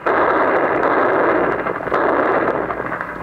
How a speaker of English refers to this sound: In fact, we are so close to the Germans that these ack-ack guns, ordinarily used only on enemy planes, are now being employed to destroy enemy ground. There they go. Another.